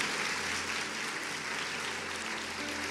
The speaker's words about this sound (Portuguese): Glória a Deus! E tem que aplaudir mesmo, tem que ser forte, porque tá difícil achar homens valiosos e valorosos.